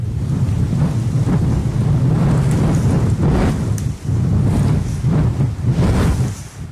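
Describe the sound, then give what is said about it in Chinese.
Strong wind roars steadily, a deep rumbling rush with gusty surges and brief lulls, loud and continuous throughout, with no voices. “我喜欢听风吹过的声音。”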